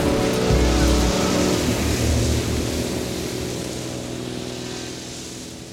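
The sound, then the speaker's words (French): Ocean waves wash steadily around a ship, a loud, continuous surging hiss over a low rumbling tone, slowly easing off toward the end. “Cependant, parfois, après le fracas d'une tempête, un navire se retrouve perdu dans l'océan.”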